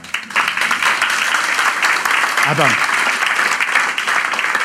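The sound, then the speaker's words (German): Steady, dense crowd applause fills the whole clip, a continuous hiss of many hands clapping at even loudness, with a brief spoken word cutting in partway through. “Wollte man klatschen.”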